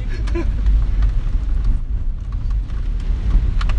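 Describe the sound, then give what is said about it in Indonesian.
Steady rain hisses over a deep, rumbling engine drone, a continuous wash of noise with faint scattered taps and no voices. The rain falls in Banten, Indonesia, where people ride motorbikes through it. “tapi hebat juga loh ini orang-orang naik motor hujan terus kagak pakai jaket gak pakai jas hujan”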